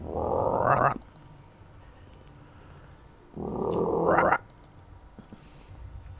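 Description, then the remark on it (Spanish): A voice imitates the call of a big bearded toad, twice the size of other toads, with two loud, throaty croaking groans, each about a second long and rising in pitch at the end, separated by a short quiet pause. “es el doble de los otros sapos y hace un ruido.”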